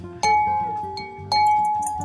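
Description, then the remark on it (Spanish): Two bright glass clinks, about a second apart, each leaving a short ringing tone as glasses touch in a toast, fairly loud over a soft background hum. “Quiero hacer un salud”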